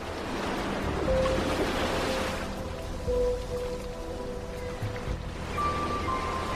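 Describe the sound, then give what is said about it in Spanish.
Mediterranean Sea waves wash steadily against the shore of the island of Mallorca, Spain, swelling into a fuller surge early on before settling into a continuous rush of water. No one speaks. “Un rincón para contenidos culturales desde la isla de Mallorca en España rodeados por el mar Mediterráneo de color azul turquesa y una brisa marina.”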